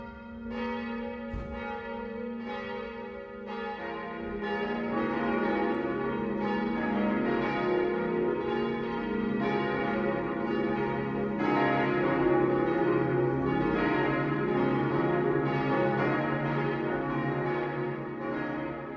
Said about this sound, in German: Es ist 12 Uhr. Das Mittagsläuten kommt heute von der Stadtpfarrkirche Eckenfelden.